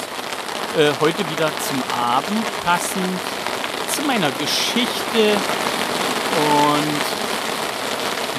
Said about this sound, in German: Und dieses Platschen, was ihr da gerade hört, das ist der Regen, der obligatorische, der jeden Tag kommt.